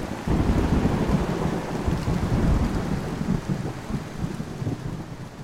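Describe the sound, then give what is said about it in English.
A thunderstorm with heavy rain pours steadily, a dense hiss over a deep, rolling rumble of thunder that stays loud throughout, with no voices. “Until then, it rains.”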